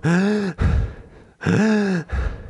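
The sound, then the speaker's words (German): A voice imitates the labored breathing of a SARS-CoV-2 infection: two loud, strained, voiced gasps for air, each followed by a harsh, breathy exhale, in a heavy, rhythmic pattern. “So habe ich geschnauft, Alter.”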